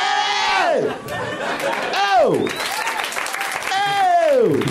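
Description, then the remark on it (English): A crowd applauds steadily throughout, dense clapping mixed with loud, falling whoops and cheers from audience members, filling the whole stretch loudly. “we did bring that on ourselves by raising the volume. Uh, that's all we did. Brought the claptrap on.”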